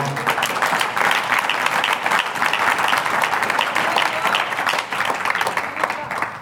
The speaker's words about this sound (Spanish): ¿Cuántos han sido libres de las amarguras? Levante su mano denle un aplauso al Señor.